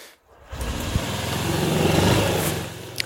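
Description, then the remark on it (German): A small motor scooter engine starts up and runs steadily, its buzzing drone swelling slightly in loudness before easing off, with no voices, as the rider sets off for the employment office. “richtig mit dem Roller, weil ich mein Auto verschenkt habe und jetzt wird halt die Sache mit dem Roller erledigt, so wie mit 17.”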